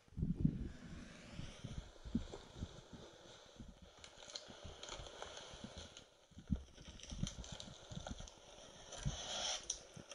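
A man quietly opens a cardboard box for an ASMR recording, with irregular crinkles, scrapes and soft tearing rustles that rise and fall over several seconds, with no voices.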